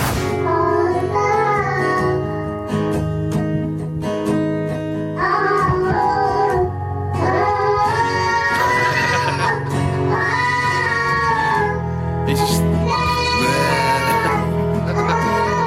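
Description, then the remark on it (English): A toddler's wordless vocal noises rise and wander over steady, full guitar playing, the music loud and continuous throughout with the small voice woven through it. “and they they come together, and the toddler's not saying any lyrics. Just making noises, remember, and what they create is, a, is an absolute work of art.”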